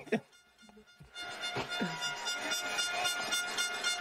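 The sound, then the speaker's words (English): Loud air horns blown by fans at a football game against the Alouettes blare continuously over a noisy stadium crowd, their sustained, droning tones overlapping after a brief rumble of crowd noise at the start. “Um, the only thing that I can say is that the Bombers will hopefully welcome them and treat them as poorly as the idiots with the air horns treated everyone that was at the game last week or watching on television, which was.”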